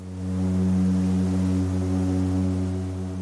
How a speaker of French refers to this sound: Dans la marine, ces, ces coups de klaxon, ça s'appelle des cornes de brume et ça sert à signaler les bateaux entre eux quand ils sont dans une zone où, il y a beaucoup de bateaux et qu'il y a beaucoup de brouillard.